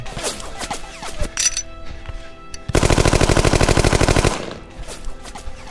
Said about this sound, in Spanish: se escuchaban las balas rozándome.